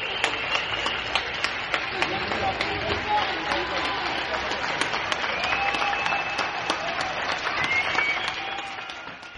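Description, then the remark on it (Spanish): Steady applause rings out from balconies and windows at 8 in the evening, many hands clapping continuously to thank healthcare workers, with faint cheers and whistles rising over the dense, sustained clatter. “Los aplausos, como ya lo sabéis, van para nuestros sanitarios, para agradecerles el enorme esfuerzo”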